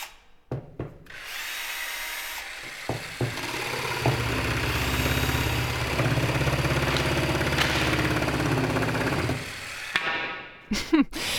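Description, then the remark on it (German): Power tools whine and grind for about ten seconds, a drill or saw running steadily with short starts and stops and clunks at the beginning and end: construction noise from set builder Martin building the studio set for the new Dein Live YouTube channel in the Medienzentrum München. “Und da habe ich ja vorhin schon erzählt von unserem Kulissenbauer Martin und so hört sich das gerade ungefähr noch bei ihm an.”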